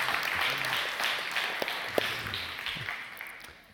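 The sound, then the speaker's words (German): An audience applauds, many hands clapping in a dense, steady wash that holds for several seconds before gradually tapering off at the end, with a faint murmur of voices underneath. “Ihr dürft klatschen.”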